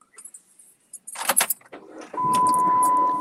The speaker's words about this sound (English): Oh, he's out of here. Oh, I guess he's leaving. he's buckle up.